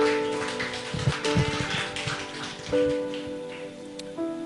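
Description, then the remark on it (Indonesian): A church audience claps for God in a dense, steady patter for several seconds, with sustained keyboard chords humming underneath and no one speaking. “Beri tepuk tangan buat Tuhan.”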